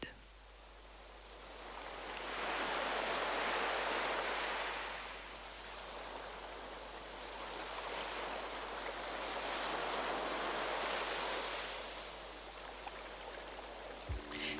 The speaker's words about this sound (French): Vous l'avez reconnu, il s'agit de la mer, des océans, ou plutôt devrait-on dire de l'océan mondial, cette immense étendue d'eau salée qui recouvre 71% de la surface du globe.